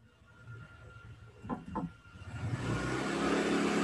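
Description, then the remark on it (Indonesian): A motorcycle engine rumbles, swelling from faint to loud and steady over the last seconds, after a couple of brief knocks near the start. No one speaks. “Wah, suara motor.”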